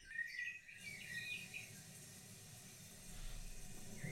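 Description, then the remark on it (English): Steady, hissing rain played from a background-noise app fills the background while a few high bird chirps twitter near the start, then fade beneath the constant wash of rainfall; quiet overall, no voices. “Maybe if you're British, let's add some rain.”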